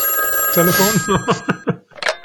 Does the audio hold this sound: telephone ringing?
yes